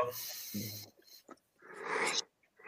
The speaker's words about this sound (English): Okay, so my co-hosts here are starting to yawn.